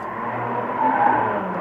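A car engine roars steadily, swelling slightly as it pulls away, with a brief squealing whine of tires midway through. No one speaks.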